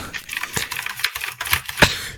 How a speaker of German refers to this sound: Kannst du das mal lassen? Das ist unanständig. Was? Ich mach nur Tastatur sauber. Ist es laut? Man hört das.